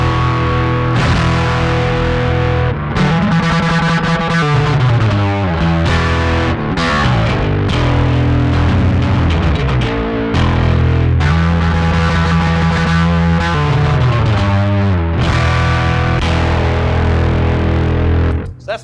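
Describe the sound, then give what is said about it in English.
A bass guitar played through guitar pedals, heavily distorted, plays the loud, sustained intro riff of a band's live set, its low notes sliding up and down under a thick, gritty fuzz that fills the whole stretch with no talking. “been seeing videos online, but this will be a, a, great chance for them to hear what this bass sounds like.”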